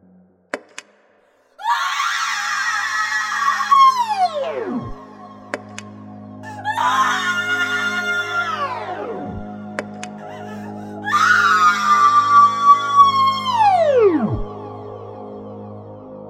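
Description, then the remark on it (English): An AI printer, plugged in by its power cable and switched on at the power button, boots up with three loud, grating electronic screaming howls, each holding a harsh buzzing pitch before sliding downward and dying away, separated by brief pauses over a low steady hum. “It took three more boots and three more screams, each one more grating, more awful.”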